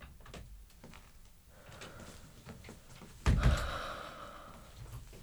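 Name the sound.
knocking on a door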